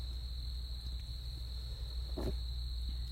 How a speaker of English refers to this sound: So I'm going to let the crickets sing y'all to sleep no matter what time of day it is. Cheers to the crickets.